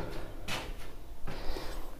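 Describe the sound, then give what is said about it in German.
A bathroom door swings shut with a brief rushing scrape followed by a longer rustling, clattering sound as it closes. No one speaks. “So, Tür zu.”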